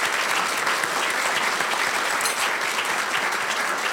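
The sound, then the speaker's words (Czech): A crowd applauds steadily for several seconds, a dense, even wash of many hands clapping with no pauses and no voices rising above it. “Prosím o potlesk.”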